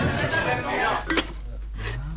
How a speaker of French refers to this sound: J'affûte ma lame. C'est une lame de scie carbure sur une petite scie portative. C'est de l'affûtage de l'affûtage.